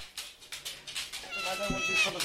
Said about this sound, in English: such a gorgeous cat. She's only one of our cats that talks. What she's trying to tell you now is that they have feeding. And she can eat.